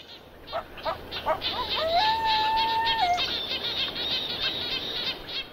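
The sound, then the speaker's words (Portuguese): Birds chirp in a busy outdoor chorus, with quick repeated tweets and a sustained whistled note standing out clearly over a soft background hiss. “São panelas batendo, ambulâncias, mas também, por exemplo, pássaros que antes não apareciam.”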